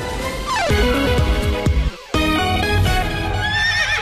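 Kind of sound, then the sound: animal, horse neighing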